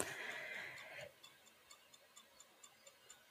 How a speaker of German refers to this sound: Hier geht jetzt auch schon wieder das Ticken los.